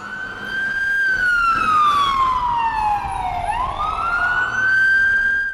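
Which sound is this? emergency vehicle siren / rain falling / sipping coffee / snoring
emergency vehicle siren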